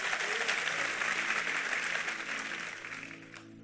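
Audience applause: a dense, steady patter of many hands clapping at once, holding strong before gradually thinning and fading toward the end, with no voices standing out.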